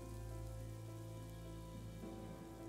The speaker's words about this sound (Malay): Hujan yang tadinya semakin teduh. Seakan hujan itu diseru oleh Tu Alang.